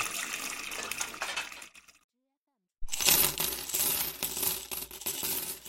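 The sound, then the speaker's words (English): Coins clatter and jingle as they drop into a bank, fairly loud, in two busy bursts separated by a brief silent pause. “She put the cash in the bank.”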